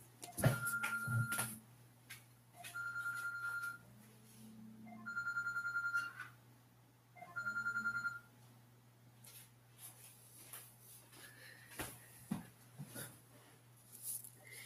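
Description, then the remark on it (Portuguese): An electronic alarm, left switched on by the speaker's children, rings in short repeated bursts, a bright warbling tone sounding about four times with pauses between, over a steady low hum and a few soft knocks. “Pera aí que eu vou ter que desligar um alarme aqui.”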